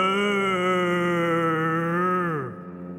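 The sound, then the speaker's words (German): A voice imitates a bear calling back with a deep, dull moo: one long, loud, steady low hum held for over two seconds, then sliding downward and fading out at the end. “Und der Bär hat zurückgehüllt, wobei es eher wie ein Mu war, tief und dumpf.”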